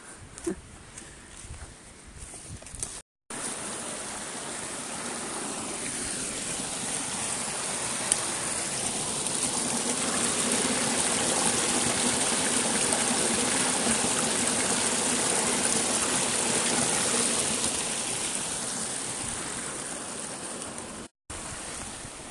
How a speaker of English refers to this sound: That's the sound of the stream.